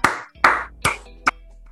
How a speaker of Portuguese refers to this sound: Salve de palmas.